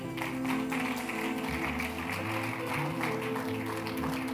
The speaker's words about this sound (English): Rise up on your feet. If you clap, you better clap well.